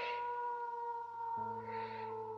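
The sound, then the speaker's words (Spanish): An old man howls like a coyote beside a campfire, holding one long, steady wail that shifts in pitch about halfway through. The voice sounds alone, with no talking. “Entonces comenzó a aullar”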